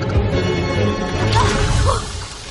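A door swings open on its own and crashes with a metallic clang against a taut tram cable, a dense, noisy clatter over a loud, continuous rumbling background, with faint voices mixed in.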